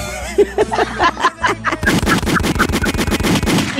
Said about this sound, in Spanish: esos tiros son para ti.